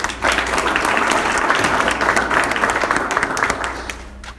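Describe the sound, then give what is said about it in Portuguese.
A steady round of applause from a crowd, many hands clapping densely and loudly for about four seconds before tapering slightly at the end. “Salva de palmas.”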